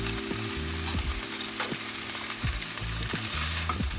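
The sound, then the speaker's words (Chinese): Instant noodles being stir-fried in a pan with a little S O sauce added: a steady hiss of sizzling oil with repeated scraping and clattering strokes of a utensil tossing the food. No one speaks. “跟这个炒泡面呢一起做翻炒，嗯，超级香的。”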